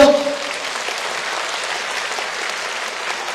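Steady audience applause welcoming a guest, the deputy secretary-general of the Shanghai Astronomical Society: dense, continuous clapping at an even loudness throughout, with a brief tonal voice-like sound at the very start.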